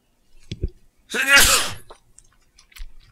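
A single loud sneeze bursts out with a sharp intake and forceful release, surrounded by a few faint breaths and small mouth noises.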